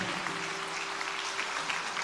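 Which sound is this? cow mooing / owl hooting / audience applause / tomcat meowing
audience applause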